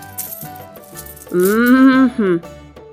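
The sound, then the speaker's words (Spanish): A few soft metallic clinks and rattles, like coins dropped onto a surface, scattered over the first second, followed by a loud, drawn-out vocal sound. “Oh, pues traigo estas monedas.”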